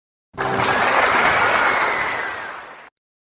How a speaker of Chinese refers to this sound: 大家掌声欢迎啊！